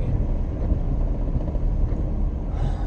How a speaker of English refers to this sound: and then this car is a big boy